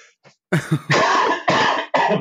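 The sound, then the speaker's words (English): A loud fit of coughing: a few short throaty hacks followed by three longer, harsh bursts in quick succession, with no talking. “I'm going to cough now.”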